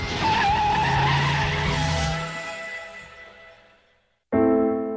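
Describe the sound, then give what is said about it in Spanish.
A car engine revs hard while tires screech and skid loudly for about three seconds, fading out, then a brief silence before a sudden loud burst of engine roar. “Este coche tira bien.”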